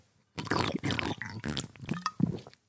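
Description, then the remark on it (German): Someone drinking a cold beer of unknown brand in a few quick gulps, wet swallowing and liquid sloshing, ending in a short satisfied exhale. The gulps are fairly loud and uneven, with no talking. “oh, köstlich, so ein kaltes Bier beim Podcasten.”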